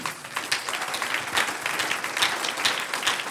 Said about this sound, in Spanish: Es que cuando recibimos el Espíritu Santo podemos vivir. Un aplauso al Señor.